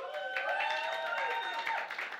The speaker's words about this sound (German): gebt mal einen Applaus für meine Tochter.